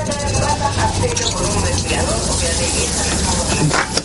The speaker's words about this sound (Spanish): Él sigue frotando sus dientes mirándose con sus gafas al espejo y ella abre el grifo de la ducha.